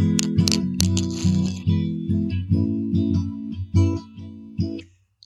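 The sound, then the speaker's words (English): A Gibson SJ-200 acoustic guitar strums a steady series of full, ringing chords, about eight or nine strokes in an even rhythm, played fairly loud with no voices, ending on a final chord that fades out. “Um, it sounds like this.”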